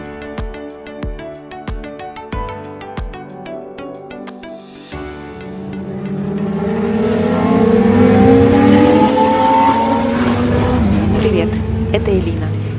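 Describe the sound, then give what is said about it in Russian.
After a few seconds of steady rhythmic thumping, loud racing car engines roar in as racing cars speed past, revving higher and higher in pitch, a dense, sustained mechanical howl that fills the rest. “Если бы у меня была возможность сделать этот выпуск в формате 5D, то вы бы сейчас кожей чувствовали вибрацию от проносящихся мимо гоночных автомобилей.”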